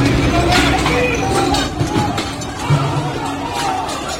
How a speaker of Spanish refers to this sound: Es el sonido de unas imágenes en un vídeo que se ha difundido en las redes sociales y que muestran el lanzamiento de sillas, mesas y cristales en un conocido bar de la zona.